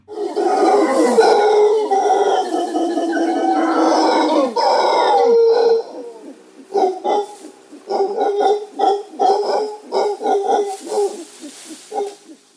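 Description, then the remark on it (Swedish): Loud, roaring howls of howler monkeys fill the air outdoors, first as a sustained droning chorus, then breaking into a series of rhythmic, pulsing calls, echoing. “Men en av dem, ja, eh, rasen är Howling Monkey, den skriker väldigt mycket och jag tänkte, jag gick ut och spelade in.”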